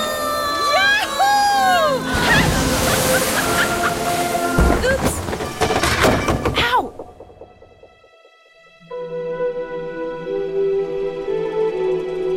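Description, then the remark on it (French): Rough sea waves surge and crash loudly for several seconds amid chaotic shouting and creaking, then the tumult cuts off and a sustained, droning musical tone takes over. “Lorsque la mer gonfle, lorsque les vagues montent et descendent et que ça vole dingue un dans tous les sens.”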